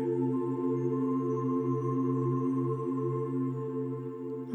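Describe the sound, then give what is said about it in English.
Steady, sustained ambient meditation music with a low droning tone and layered harmonic tones, played alone at a moderate, even level with a gentle pulsing rhythm. “Now become aware of the music that you hear in the background.”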